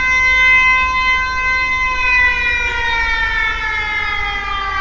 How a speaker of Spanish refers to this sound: Exacto, así que bueno, a partir de ahora suena la alarma. Alerta de spoiler.